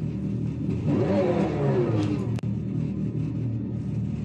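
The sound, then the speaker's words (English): A Dodge Charger Daytona SRT electric muscle car revs loudly and steadily, its synthetic engine note rising and sweeping in pitch, with a brief sharp click partway through. No one speaks. “Sounds cool. That looks cool too. Dodge Charger Daytona SRT electric muscle car.”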